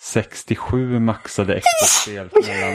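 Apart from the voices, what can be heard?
sneeze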